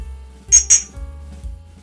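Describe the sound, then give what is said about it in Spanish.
Two quick, bright glass clinks ring out close together, a toast of glasses tapping with a short shimmering ring after each, over a quiet low room hum. “Entonces, tenemos que eh, hacer como el brindis.”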